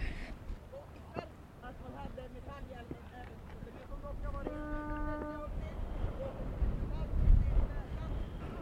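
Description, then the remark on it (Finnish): Strong wind buffets the microphone with a steady low rumble that swells into a louder gust near the end, on the very windy summit of Linnavuori hill at Birka, by the cross of St. Ansgar. Faint voices and a brief horn-like tone sound in the background. “No nyt nousimme tänne erittäin tuuliselle Linnavuoren laelle ja siinä on edessä tuo risti.”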